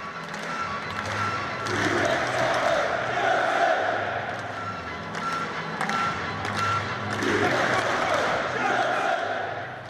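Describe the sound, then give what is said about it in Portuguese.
A football stadium crowd at Stamford Bridge in London, at Chelsea's 3–1 derby win over Crystal Palace, roars and chants continuously, a dense wash of many voices rising in loud swells with rhythmic sung chants and occasional claps or thumps. “Torcida deles ali fazendo bastante barulho também, né, Jorginho?”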